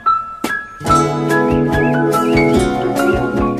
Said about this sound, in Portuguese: Quando a gente ouve no piano esse som aí, presta atenção. É igualzinho ao som do Matinta Perê, que é um passarinho que tem por quase todo o Brasil.